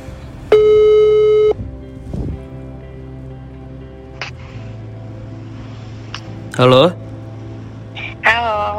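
A telephone ringback tone sounds once, a steady electronic beep lasting about a second, followed by a low hum of line noise and a few brief chirpy bursts near the end, while phoning an old friend.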